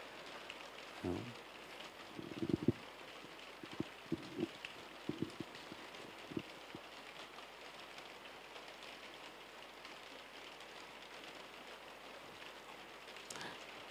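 Steady rain falls with a soft, continuous hiss, and scattered louder drops patter and tap nearby during the first few seconds before the rain settles into an even wash.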